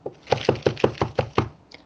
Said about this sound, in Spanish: Alguien llamó a la puerta.